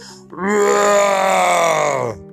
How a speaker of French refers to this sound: Soudain, un puissant rugissement retentit.